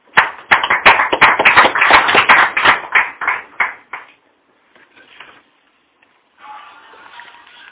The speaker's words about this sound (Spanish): Por favor, acuden con un nutrido aplauso